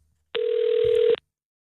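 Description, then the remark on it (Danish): A single ringback tone on a phone line while calling Save the Children in London: a steady, mid-pitched electronic buzz lasting just under a second, then cutting off into silence. No one speaks. “Ring til øh, London Red Barnet.”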